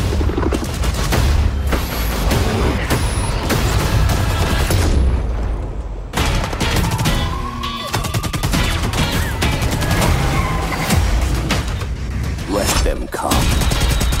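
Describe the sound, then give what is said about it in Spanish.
Loud, dense gunfire from the video game Black Ops Cold War: rapid automatic bursts and sharp shots with booming impacts, continuing almost nonstop for the whole stretch except for a brief break around the middle. “Pues vamos con este título que sabéis que es uno de los destacados o si queréis la cita anual con disparos y una franquicia que ahora nos va a contar cómo ha encontrado esta entrega llamada Black Ops Cold War.”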